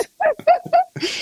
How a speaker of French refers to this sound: Tu pourras dire à ton lévrier derrière d'arrêter de couiner, ça m'énerve.